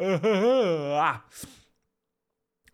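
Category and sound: human body sound, yawn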